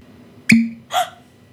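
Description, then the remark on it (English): A real cork stopper with a wooden top is pulled from a vodka bottle, making a crisp, hollow pop with a brief ringing tone, followed a moment later by a softer second pop. It is clear, with no talking. “if it comes with a cork rubber stopper, you know it's good”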